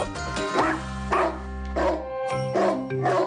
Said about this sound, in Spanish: Tus vecinos están de escuchar que tu perro no para de ladrar y la convivencia está en riesgo?